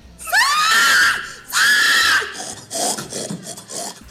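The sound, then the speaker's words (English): A pig sound effect for the Nick Cage film Pig: two loud, high-pitched pig squeals in quick succession, each a shrill rising-then-falling shriek lasting about a second, followed by fainter grunting and snuffling noises. “Oh, you know you're going to hear that. That sound effect is going in there.”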